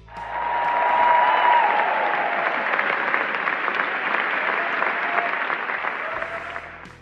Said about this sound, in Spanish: La cinta, dirigida por la francesa Mai Wen, recibió una ovación de pie durante 7 minutos.